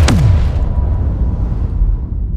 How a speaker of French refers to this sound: Si la bombe nucléaire vous paraissait être une explosion violente